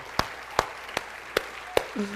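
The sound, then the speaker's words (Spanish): Five sharp, evenly spaced hand claps ring out on a steady beat, a group clapping in unison as applause to the Lord, with a faint voice starting up at the very end. “Nosotros somos un sí, dale un aplauso al Señor, por eso tan extraordinario.”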